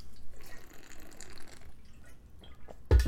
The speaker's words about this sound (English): I'm going to take a sip of water.